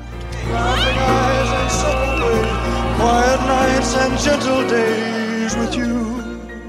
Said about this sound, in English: And I got to tell you, the audience w- went nuts. All you could hear was was screaming, hollering, clapping. We couldn't hear each other. The musicians couldn't hear each other. When you're listening to this set, you can hear occasional screams.